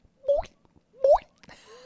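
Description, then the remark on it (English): A voice mimics dripping water with two rising, bubbly 'bloop' sounds about a second apart, followed by a short breathy, noisy burst. “That's a and now That's a pretty drip, good.”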